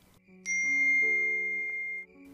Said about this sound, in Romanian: Deodată, sunetul este întrerupt de un mesaj primit pe telefonul meu.